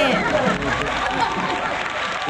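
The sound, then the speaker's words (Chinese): A steady wash of applause from a crowd welcoming a singer about to perform a song, dense and even for about two seconds, with a murmur of voices blended into the clapping. “来，掌声欢迎。”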